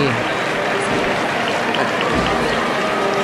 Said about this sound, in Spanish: Llega, hasta San hoy, el aplauso. Sí. En los balcones, fíjate los, balcones, todo el mundo aplaudiendo.